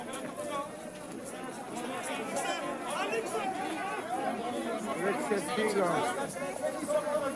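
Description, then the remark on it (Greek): A dense crowd of people chattering outdoors, many overlapping voices blending into a steady, moderately loud hubbub with no single speaker standing out, continuing evenly throughout. “Ε, πολλής κόσμος. Να βάλουμε και λίγο φυσικό ήχο αν είναι, να το ανεβάσουμε λίγο.”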